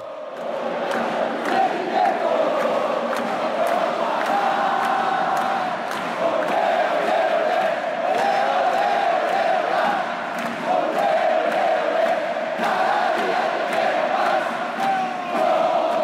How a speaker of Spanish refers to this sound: 40.000 peruanos a plena voz, todo el estadio de rojo y blanco.